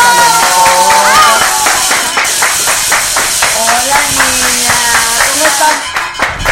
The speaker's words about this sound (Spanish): Denles aplausos, son guapas